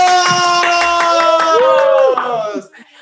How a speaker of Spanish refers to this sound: ¡Aplausos!